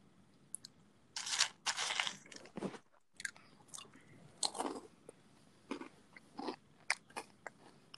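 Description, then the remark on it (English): Loud crunching of Captain Crunch breakfast cereal being chewed, with dense bursts of brittle crackling between short pauses, heard alone with no voices. “Oh, I love Captain Crunch.”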